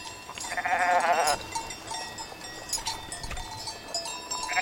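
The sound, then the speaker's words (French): A panicked sheep lets out one loud, quavering bleat near the start, followed by jangling animal bells and scattered movement noises as the flock flees in all directions from a wolf that has fallen among them, with no talking. “Oh loup Oh loup Oh loup hurlent les moutons affolés, en fuyant de tous côtés.”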